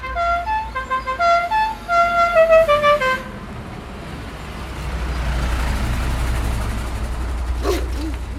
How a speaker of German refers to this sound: da war ja wieder die schöne Hupe von, von dem Bus. Ja, Michael Fey, der Fahrer, der hupt, wenn der Bus schon in der Anfahrt ist und dann kommen die Leser und Leserinnen aus den umliegenden Häusern schon herbei